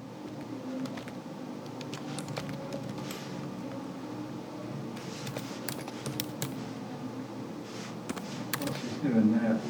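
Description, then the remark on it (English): Slow, uneven typing on a computer keyboard, individual keystrokes clicking at irregular intervals over a low, steady background hum, with a faint murmur near the end. “I know I'm typing it really slowly.”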